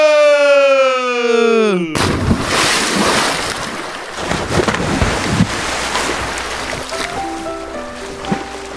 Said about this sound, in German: Wir sehen uns im Ebertbad und äh, ich glaube, es ist Zeit für eine Arschbombe. Es ist sowas von Zeit. Okay, dann oh, und Arschbombe!